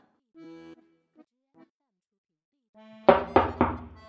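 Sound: knocking on a window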